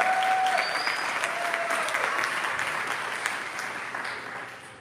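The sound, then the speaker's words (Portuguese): An audience applauds in worship of Jesus, a dense wash of many hands clapping at a fairly loud, even level, with a few faint whistles or shouts riding on top before it gradually tapers off. “Pode adorá-lo, pode aplaudi-lo, pode dar glória a Deus.”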